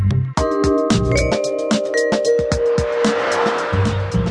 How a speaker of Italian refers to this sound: Sotto di noi, a chilometri di distanza, ogni tanto il lamento di qualche auto sui tornanti disturbava il nostro assoluto distacco dalla civiltà, dai negozi, dalle case con più di un piano.